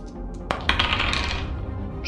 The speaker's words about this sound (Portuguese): Senta o dedo, pode rolar um dado a mais. Na verdade eu rolo um dado a menos.